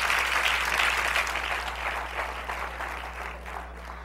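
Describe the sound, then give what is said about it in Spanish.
An audience claps steadily in a dense, crackling wash of applause that gradually thins and fades toward the end, with a low electrical hum underneath and no one speaking. “Yo entiendo que es difícil aplaudir en esta noche.”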